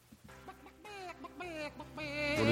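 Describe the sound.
People mimic chicken clucking with a quick string of overlapping, squawky bawk-bawk sounds, fairly loud, growing busier and louder toward the end.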